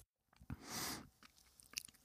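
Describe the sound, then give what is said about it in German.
Wet chewing on a dark chocolate filled with eggnog liqueur: a soft crunchy burst followed by scattered smacks and small clicks of the mouth, with no talking. “Scheint sehr gut zu sein, wenn man so viel kaut.”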